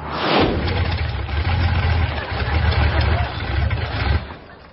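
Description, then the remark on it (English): A car engine runs roughly with an uneven, chugging rumble, sputtering for a few seconds before it cuts out and goes quiet near the end as the car runs out of gas. “Now we need gas.”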